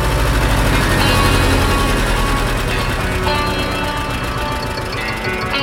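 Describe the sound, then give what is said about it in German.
A tractor engine runs steadily and loudly while pumping air, a dense low rumble with a rapid rhythmic knocking throughout, no voices over it. “Ein Traktor, der Luft pumpt, habe ich so auch noch nicht gesehen.”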